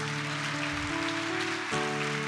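audience applause

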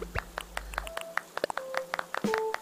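farewell applause

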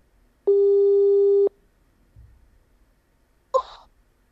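telephone line tone

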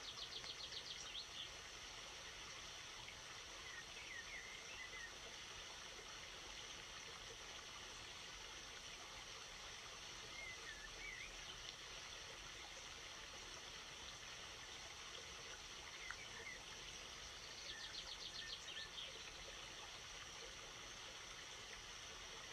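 flowing river stream

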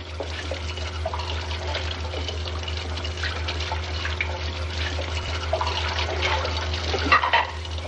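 tap water running

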